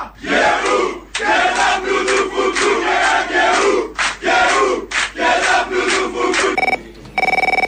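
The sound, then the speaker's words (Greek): A large crowd chants a rousing partisan battle song in loud, rhythmic unison, voices surging in bursts with brief pauses, before a telephone ring cuts in at the end. “Και τώρα βάλουμε και ένα αντάρτικο να φτιαχτώ.”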